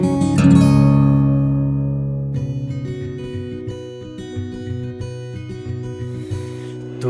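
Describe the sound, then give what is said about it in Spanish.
A music track opens with a loud, sustained chord that slowly fades, then a steady rhythm of bright, repeated keyboard-like notes takes over. A cymbal-like shimmer rises near the end, with no vocals. “Vamos entonces a escuchar en este momento un tema musical”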